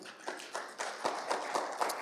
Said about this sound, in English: yeah, you can clap your hands for that, yes.